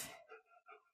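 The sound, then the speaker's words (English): A dog sniffing all over the room gives a sharp, breathy sniff, followed by two brief, thin nasal squeaks, all within about a second and with no talking. “She's sniffing all over the place.”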